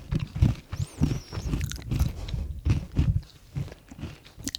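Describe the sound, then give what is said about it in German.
Someone crunches a biscuit, with a steady run of loud, crackly bites and chewing crunches repeating roughly every half second, with no talking. “esse einen anderen Keks, dass wir beide knistern.”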